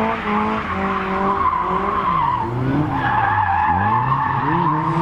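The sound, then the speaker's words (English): A car drifts at a brand event with loud, continuous tyre squeal, the pitch sliding up and down over a roaring engine, sustained for several seconds with no talking. “But expect a lot of noise and a lot of tyre smoke.”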